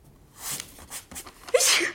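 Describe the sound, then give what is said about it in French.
A sharp sneeze caused by a dust allergy bursts out near the end after a few quick breathy inhales, with no talking around it. “Le plus drôle, c'est que je suis allergique à la poussière.”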